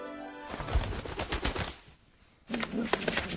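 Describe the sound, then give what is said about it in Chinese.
Doves coo in low, soft tones while wings flap in a quick series of papery bursts; the flutter pauses briefly, then cooing and flapping resume together. “后来，鸽子们衔着花儿回到枝头，用花瓣儿装点它们的小窝。”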